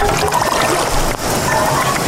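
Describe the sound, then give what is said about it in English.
A steady, dense bubbling of water being boiled in a video game fills the whole stretch, loud, like a game sound effect, with only a brief dip in the churning partway through. “Let's boil some water.”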